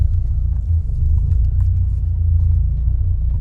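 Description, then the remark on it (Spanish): A car engine rumbles steadily at low speed as the car turns around to park near a gym, a continuous low drone with faint ticks and rattles above it and no talking. “Y otro poquito más para allá. Vamos a dar la vuelta.”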